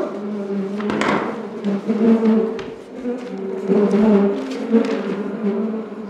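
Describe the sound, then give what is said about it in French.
A dense, steady drone of many bees buzzing around a hive, their hum rising and falling, with occasional soft knocks and rustles mixed in. No one speaks. “Je suis venu tous les jours. Sinon les abeilles auraient essaimé.”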